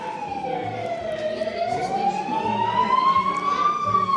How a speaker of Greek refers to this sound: περνάει ένα ασθενοφόρο απ' έξω που οι σιρήνες του ήταν αναμένες.